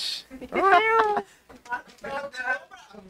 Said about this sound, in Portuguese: Outro gato!